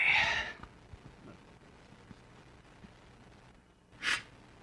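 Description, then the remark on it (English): Two breathy nasal sniffs from a man about to speak to a group, a longer one at the start and a short sharp one near the end, separated by a quiet stretch of faint background noise. “You don't want to hear me sniffle the whole time, right?”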